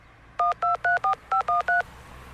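A quick run of seven touch-tone keypad beeps as a phone number is dialed, two rapid groups of clear dual-tone presses, fairly loud, with no one talking.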